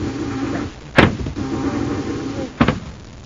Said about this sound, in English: I can't finish you with the blast gun. The guards would hear it. This ray gun will have to do for now.